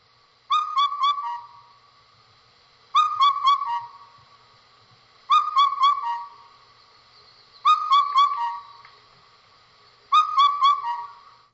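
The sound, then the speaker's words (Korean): A bird, field-recorded out in nature, calls five times, each a quick four-note whistled phrase, repeated at an even pace with short silent gaps between, clear and fairly loud with no voices. “소리를 한번 들어볼까요? 제가 녹음했어요. 현장에서 예, 예. 자연 속에서 예. 채집한 소리인데요.”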